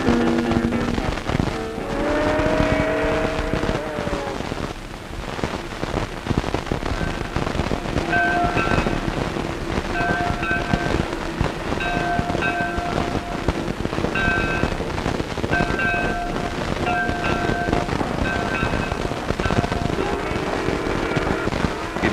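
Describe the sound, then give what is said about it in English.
A train operated by former loggers labors steadily uphill on a two-hour mountain climb near Cass, its loud, constant chugging rumble, with sustained whistle tones sounding near the start and again through the middle. “is a two-hour climb to the top.”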